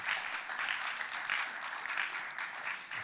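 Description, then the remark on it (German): Steady applause from an audience at a worship service after a time of worship, a dense even patter of many hands clapping at moderate loudness throughout, with no voices standing out. “Ja, gib mal einen kräftigen Applaus.”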